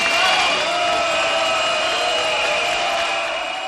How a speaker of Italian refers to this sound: Applausi e contrasti come ogni anno, amici ascoltatori. A giudicare ci sembrano piuttosto forti i fischi più degli applausi.